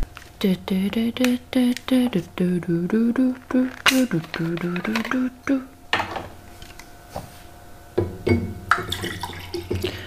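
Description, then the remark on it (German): A voice talks for several seconds, then a plastic water bottle is handled: crinkling, a twist of the cap and a short splashy pour, fairly quiet. “Okay, ich lasse die Wasserflasche mal offen, dass ich nicht viel knister so nebenbei.”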